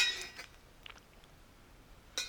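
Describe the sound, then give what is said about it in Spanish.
Someone takes a sip of water from a glass: a few light, bright clinks of glass at the start and end, with soft, quiet handling in between and no talking. “Antes de seguir, quiero tomarme un traguito con agua de agua.”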